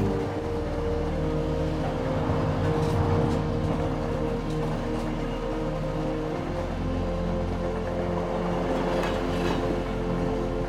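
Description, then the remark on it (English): A steady, heavy rumble of an empty train carriage in motion as the engine picks up and the carriage vibrates, with a low droning engine hum and faint rattles and clicks over the track, continuous throughout. “As the engine picks up and the carriage vibrates, the train moves on.”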